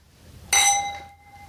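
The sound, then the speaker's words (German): A single bright clink of glasses touching in a toast, a sharp onset followed by a ringing, high tone that fades over about a second, with no voices. “Mädels, lasst uns mal anprosten.”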